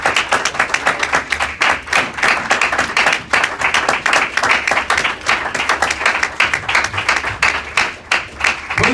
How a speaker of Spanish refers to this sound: Le damos un aplauso más al Señor, hermanos.